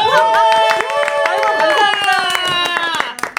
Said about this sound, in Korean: 우리 … 여러분들 팬이니까 박수 한번 주세요.